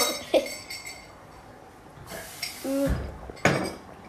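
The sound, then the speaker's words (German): Glasses clink and knock a few times as drinks are picked up and set down, with brief bright taps, a soft scrape and light handling noise. “Jetzt, ähm, ich hätte gerne mein Glas.”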